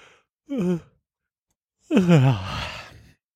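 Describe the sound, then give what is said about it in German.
A person yawns: first a short voiced sound, then after a pause a long, drawn-out yawn whose pitch slides downward and trails off into a breathy exhale. It is moderately loud, with no talking. “Ich muss dann doch vorher gähnen.”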